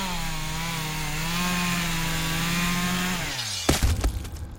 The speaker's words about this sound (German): Heutzutage könnte es natürlich auch irgendein Irrer mit der Kettensäge sein.